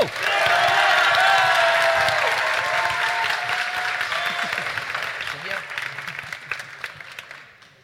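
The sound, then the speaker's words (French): An audience bursts into loud applause and cheering, making as much noise as possible for the project Naître, with dense clapping, whoops and shouts holding strong for several seconds before gradually thinning out and fading away. “Alors, pour le projet Naître, à 3, comme d'habitude, un maximum de bruit. 3, 2, 1, go”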